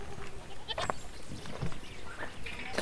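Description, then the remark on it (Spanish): Several goats bleat in short, wavering calls scattered across the moment, over a busy outdoor background with no talking. “No, esa la vamos a dejar porque no le puedo dejar a mi mamá sin cabra.”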